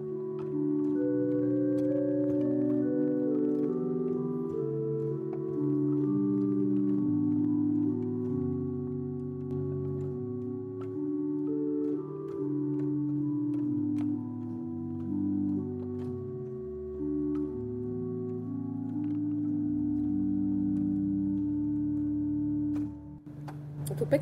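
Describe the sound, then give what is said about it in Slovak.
A church pipe organ on a soft, hollow Bourdon stop plays slow sustained chords in a low-middle register, notes shifting smoothly and steadily for the whole stretch, with no voices; the sound carries through the high-ceilinged church. “Uh, jeden z tých, ktorý používam teda pomerne často, je Burdon.”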